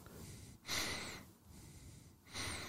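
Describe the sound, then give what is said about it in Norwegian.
A person imitates the heavy, ragged breathing of a runner exhausted after running the Trondheim marathon: two loud, rushing breaths about a second and a half apart with softer huffs between. “Hvordan hadde pusten din vært hvis du hadde sprunget Trondheim maraton?”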